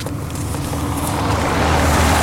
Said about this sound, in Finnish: Aina tuli auto.